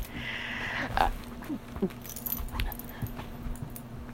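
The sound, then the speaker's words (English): A female puppy chews and rustles at a tissue, with soft crinkling, clicks and a jingling tag, and a brief thin whine near the start. Faint steady hum underneath; no one talks. “Yeah, she's eating tissue, and she's she's gonna protest when we take it away from yeah.”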